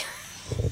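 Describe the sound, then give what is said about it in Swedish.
A tiny, sharp sneeze bursts out right at the end, fairly loud, preceded by a brief soft snuffling breath and otherwise quiet background. “Med små mininysar alltså.”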